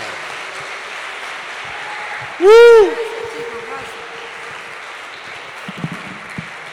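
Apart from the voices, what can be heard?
audience applause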